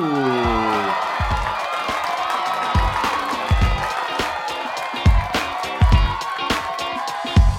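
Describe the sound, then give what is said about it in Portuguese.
A crowd applauds and cheers steadily, with scattered whoops and sharp claps rising above a dense wash of noise, sustained throughout, welcoming improviser and actor Andrei Mosqueto to an interview. “Recebeu com uma salva de palmas Andrei Mosqueto.”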